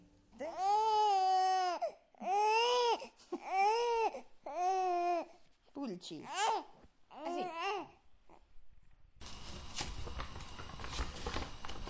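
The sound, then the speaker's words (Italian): A four-month-old infant babbles and fusses in a run of drawn-out, wavering vocal bursts that rise into crying-like wails, followed by a brief stretch of rustling, scuffling noise. “quattro mesi e già tante cose da dire.”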